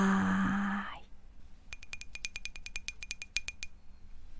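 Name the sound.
glasses clinking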